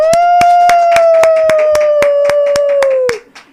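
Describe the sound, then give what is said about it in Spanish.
Steady, brisk hand clapping during a radio broadcast, about a dozen sharp claps in even rhythm, over a loud sustained tone that slowly drifts lower before everything cuts off abruptly. “Isidro no aplaudió, Isidro no hizo bulla”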